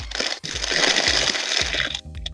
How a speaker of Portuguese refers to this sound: Vocês estão abrindo o ovo de Páscoa agora, no meio da gravação? Que merda de barulho é, é Tem alguém ah, amassando é. papel alumínio com a bunda e, e quem, quem tá fazendo?